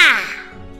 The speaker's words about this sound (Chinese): 两只非常大的黑色乌鸦落到花园的栅栏上，它们饶有兴趣儿的看着这颗巨大的樱桃。一只乌鸦叫着“哇哇”，另一只乌鸦盯着樱桃回答“哇哇哇哇”。